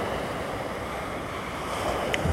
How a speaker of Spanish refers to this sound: En verdad se escucha el ese viento bien, bien, bien fuerte ahora mismo.